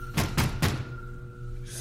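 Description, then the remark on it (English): A door is shut with three quick, heavy thuds, followed a moment later by a short scraping rattle as the lock is worked. No one speaks. “You, you can't lock this door.”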